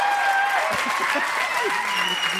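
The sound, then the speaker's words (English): Audience applause: a steady, dense wash of clapping hands that holds at an even loudness for the whole stretch, with a few faint voices and whistle-like tones mixed into the crowd noise. “I, li- I like that applause.”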